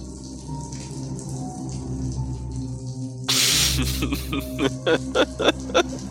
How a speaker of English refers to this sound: For some reason, the water sound effect sounds like somebody's taking a piss against the wall.